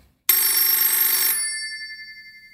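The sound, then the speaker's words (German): A telephone bell rings once with a bright, metallic trill lasting about a second, then its tone lingers and fades. It is fairly loud, with no talking. “Du, ich sollte, glaube ich, jedes Mal einen Euro nehmen, wenn ich ans Telefon gehe.”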